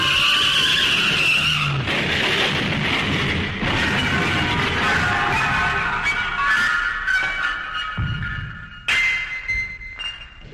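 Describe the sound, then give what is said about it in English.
A runaway garbage truck skids in the street with a long, high tire screech, followed by loud crashing and clattering impacts, then a final burst of squealing. No one speaks. “She grabbed my laundry and ran into the street, directly into the path of a runaway garbage truck.”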